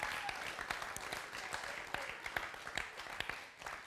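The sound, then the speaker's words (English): A church service audience applauds a woman taking on a new role, clapping steadily for a few seconds, a dense wash of many hands clapping with a few sharper individual claps standing out, fairly quiet and fading slightly at the end. “So everybody give her a round of applause uh, for everything she does for us.”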